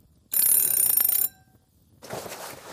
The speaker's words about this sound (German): Da klingelt es an der Tür.